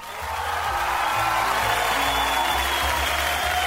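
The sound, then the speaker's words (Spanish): Steady applause from a group welcoming a guest on a radio show fills the whole stretch, a dense, even wash of clapping that rises quickly and holds at a constant level, with a faint low hum underneath. “recibimos con los aplausos a la especie que estaba perdida aquí en Cami Radio”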